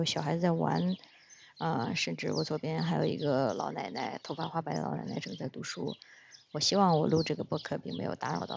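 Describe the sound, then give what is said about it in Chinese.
Small birds chirp faintly in Villa Borghese, a large park in central Rome, on a hot day of about 27–28°C, with thin high tweets slipping through while a woman talks almost without pause over them. “当然，现在我身边有小鸟在叫”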